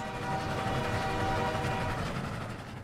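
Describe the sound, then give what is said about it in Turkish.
A train rumbles steadily along the tracks with a sustained horn-like tone, loud and continuous for a few seconds, fading slightly at the end with no voices. “Şam'a götürülürken kayalık bir yerde kendini trenden atarak intihar ettiği söyleniyor.”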